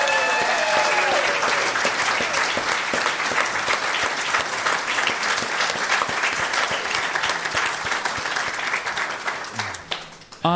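Sustained applause from an audience welcoming guests from Kanilea Pen Company, a dense, steady patter of many hands clapping for about ten seconds, with a brief voice at the start and another as the clapping fades at the end.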